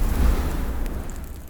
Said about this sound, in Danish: Kunne du høre, hvad det var? En luftig prut. På en måde. Man skal nemlig bruge luft.